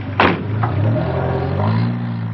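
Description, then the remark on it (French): A car engine catches with a short burst, then settles into a steady hum that rises in pitch as the car pulls away again. “La voiture redémarre.”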